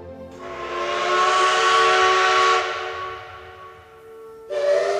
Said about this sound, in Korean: 이따금 들리는 날카로운 혹은 우렁찬 기적 소리가 모짜르트보다도더 가깝다